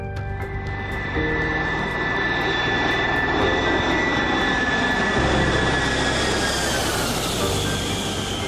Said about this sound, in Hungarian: 1982. november 27-e. Este fél hat előtt néhány perccel a Varsói repülőtére landol a Malév Leningrád felől érkező és Budapestre tartó 121-es járata, melyet a társaság első 254-esével, a Lima Charlie Alfával, azaz LC Aladárral teljesítettek.